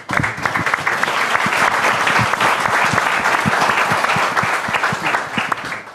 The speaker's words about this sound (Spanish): Pues un aplauso para los emprendedores.